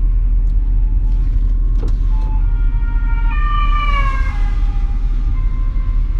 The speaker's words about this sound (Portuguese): Mais uma ambulância, o que é que se passa hoje? Foda-se um gajo não saiu de Braga.